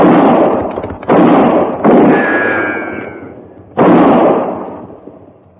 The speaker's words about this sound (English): That's fine shooting, just fine. You missed him.